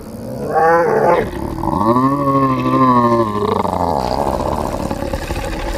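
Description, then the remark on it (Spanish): A monstrous, drawn-out howl, part animal and part human scream, rises and bends in pitch for several seconds, loud, then fades into a low rumbling growl. “Pero lo más aterrador aún es que sonaba como la mezcla de un aullido de un perro con el grito de un hombre que siente muchísimo dolor.”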